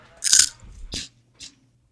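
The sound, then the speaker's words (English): A loud crunchy bite followed by two shorter crisp crunches of chewing, spaced unevenly over a couple of seconds, with no voices. “It'd be cool if you're like munching on some shit as you're.”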